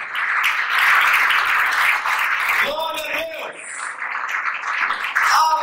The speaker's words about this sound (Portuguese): Quem se alegra, celebra com um aplauso ao Senhor agora. Em forte. Celebra o Senhor com um forte aplauso.